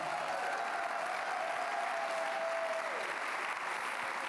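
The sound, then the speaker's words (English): An audience gives one more round of applause, a dense wash of clapping hands holding at an even, fairly loud level throughout, with a faint tonal whine fading out partway through. “you know, could we give these guys one more round of applause, please?”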